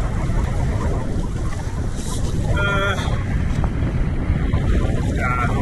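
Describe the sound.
Strong wind roars steadily over the sea beside a skerry, a dense, blustery rush buffeting the microphone, with water churning underneath and a faint voice briefly audible through the gusts.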